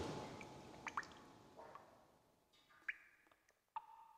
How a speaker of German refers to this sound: Einige Ausstellungsstücke lagern unter Abdeckplanen. Weil es doch hin und wieder von der Decke tropft bei Regen.